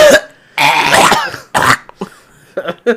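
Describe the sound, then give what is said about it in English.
A person imitates Gollum's cough from the Lord of the Rings Gollum game, which coughs when you pick up fish: a long, rough hacking burst, then a shorter harsh one, followed by a few smaller throaty sputters, loud with no talking. “Uh, it just coughs at you whenever you pick up fish and you”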